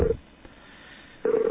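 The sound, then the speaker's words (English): Two short electronic telephone keypad tones as a radio host places a call, one at the start and one at the end, with a faint hiss in between. They sound thin and narrow, as if heard over a phone line. “Sorry for the phone noise there.”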